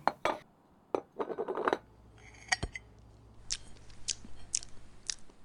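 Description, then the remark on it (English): Someone eating pudding: soft wet chewing and smacking mixed with sharp clinks of a spoon against a dish, several bright taps spaced out near the end, with no talking. “It's so easy and enjoyable to eat up this pudding.”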